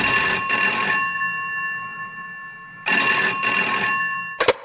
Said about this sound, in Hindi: इससे पहले कि प्रिया कुछ सोच पाती उसके कमरे का लैंडफोन बजा